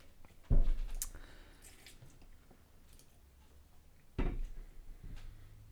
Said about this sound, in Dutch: Wacht, dan neem ik even nog even een grote slok.